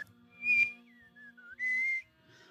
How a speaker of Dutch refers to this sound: Dat is eh, een sample van een eh, Tuvaanse keelzanger.